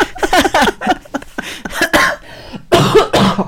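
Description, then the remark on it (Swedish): A run of loud coughs: a quick series of short hacking bursts, a brief pause, then two heavier, harsher coughs to finish. No one speaks. “herregud man får inte hosta i coronatider.”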